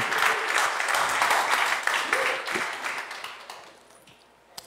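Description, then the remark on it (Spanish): A crowd breaks into dense, steady applause for God, many hands clapping together loudly, then gradually thinning and fading out toward the end with a few scattered claps. “Con un aplauso Dios, qué bueno.”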